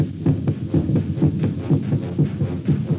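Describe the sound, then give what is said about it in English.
A person's own heart pounding with fear, a rapid heartbeat thudding in a steady, fast rhythm, deep and muffled, continuing alone without any voices. “It's your heart, of course, that you hear, stepping up its cadence, pounding under the forced draft of fear.”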